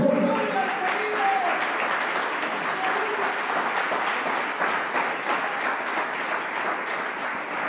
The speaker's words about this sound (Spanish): Démosle un aplauso al Señor.